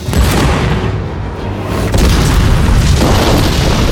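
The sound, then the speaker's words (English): Four ammunition trucks in a town square explode as Groundhog opens fire on them, massive explosions roaring continuously, a dense rumbling blast with heavy low-end boom that barely lets up, swelling again partway through as another detonation hits, loud. “The explosions were titanic the German soldiers scattering everywhere.”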